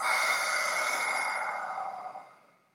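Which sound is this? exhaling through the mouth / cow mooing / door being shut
exhaling through the mouth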